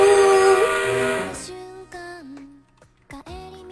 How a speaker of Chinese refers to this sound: 哇，爱情小火车滚滚来，丢丢丢丢丢，呜！